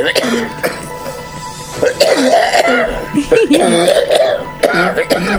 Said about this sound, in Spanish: yo siento este, este men que me está tosiendo aquí en el oído. Escucha.